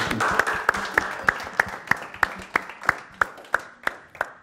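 An audience applauds two interviewees after an interview, with a dense, steady wash of clapping, punctuated by sharp, evenly spaced louder claps that keep a regular rhythm throughout.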